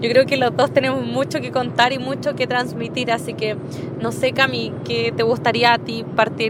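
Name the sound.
car driving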